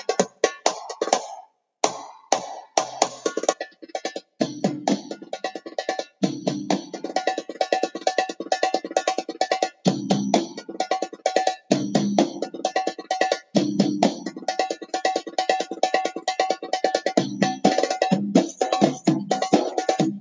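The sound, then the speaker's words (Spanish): Arabic percussion music with rapid, dense hand-drum strokes, sharp metallic-edged slaps over deeper resonant tones, played in a driving, continuous rhythm with no voices, on a djembe-like hand drum with a metal rather than wooden body. “las percusiones árabes es algo que no he estudiado demasiado”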